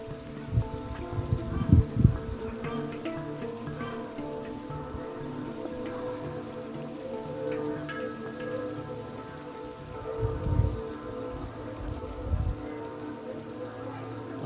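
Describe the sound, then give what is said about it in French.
Light rain begins to fall steadily in a soft, continuous patter, with a few dull low thumps now and then. No one speaks. “La pluie fine qui commence à tomber.”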